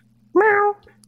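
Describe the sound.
A single loud, drawn-out cat meow lasting under half a second against a low background hum, with a voice just starting at the very end.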